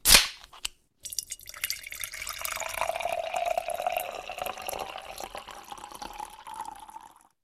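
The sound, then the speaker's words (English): A sharp crack of a beer being opened, a brief pause, then a steady pour of beer into a glass for several seconds, its pitch rising slightly as it fills. “good pour, sir. Good pour.”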